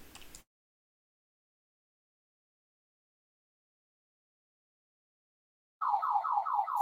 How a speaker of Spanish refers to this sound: Oh, ese lo más interesante es que cuando suenan las alarmas de los carros, nadie hace caso. no. Nadie.